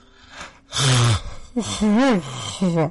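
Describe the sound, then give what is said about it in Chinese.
A voice imitates yawning: a short breathy intake, then three drawn-out, loud voiced yawns whose pitch glides up and down, the first falling low and groan-like. “没过三分钟，就看那个老太太呀打开了哈欠了”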